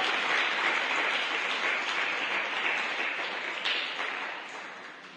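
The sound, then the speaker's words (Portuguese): An audience applauds for Christ in a sustained, dense wash of clapping that holds steady at a fairly loud level, then gradually tapers off toward the end. No one speaks over it. “Dê um aplauso a Cristo, pode ser, por favor?”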